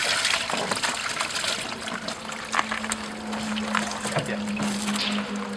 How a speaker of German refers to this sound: Am Ufer der Oste, eines Flüsschens in Niedersachsen. Aus einem Lieferwagen, der mit großen Wasserbecken beladen ist, schöpfen Männer mit Keschern schlangenartige Fische und schütten sie in Eimer. Es sind Aale, die hier ausgesetzt werden sollen.